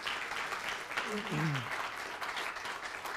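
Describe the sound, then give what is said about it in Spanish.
A steady burst of audience applause welcoming visiting guests, dense crackling claps of even loudness lasting the whole clip, with a brief voice rising over it partway through. “Un aplauso para ellas también, por favor.”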